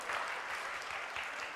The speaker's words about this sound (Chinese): 进去了，我就大喊一声“耶”，掌声鼓励一下，耶！